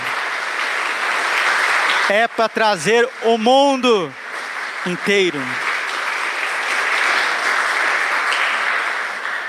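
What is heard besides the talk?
applause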